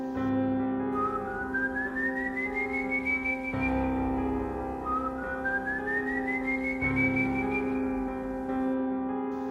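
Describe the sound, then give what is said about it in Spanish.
Two slow, rising whistles, each gliding upward and then holding, drift over a steady low droning background. They sound soft and somewhat distant, with no voices present. “Notas que los silbidos ya no se escuchan cercanos, los empiezas a escuchar mucho más lejos y más suaves.”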